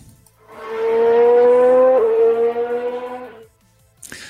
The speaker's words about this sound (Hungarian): a folytatás pedig a szignál után.